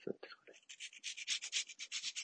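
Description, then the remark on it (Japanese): Rhythmic sanding or scraping strokes as someone carves the lip of a handmade Echo fishing lure, a quick steady series of short rasping passes, fairly loud, with no talking. “うん、なかなかこう、収録する時間を作るっていうのが難しくなってきたんで、こうやってルアー作ってる時が一番いいかなと思います。”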